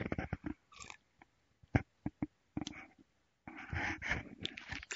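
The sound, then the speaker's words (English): Loud slurping sips of hot coffee: a string of short, uneven sucking and smacking bursts with brief pauses, then a longer, noisier slurp. No one speaks. “Sip of coffee.”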